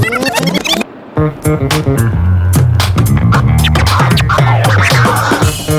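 Toilet paper is rustled to imitate a flying bird's wingbeats as a recorded sound effect for an animation, papery flapping bursts recurring in quick irregular flurries over a loud, rhythmic music bed with deep bass notes, after a brief pause near the start.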